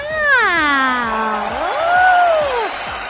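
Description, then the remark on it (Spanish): An audience in Atlacomulco applauding, a steady wash of clapping with a loud voice whooping over it, sliding down in pitch, then rising and falling again. “El público de Atlacomulco te está aplaudiendo.”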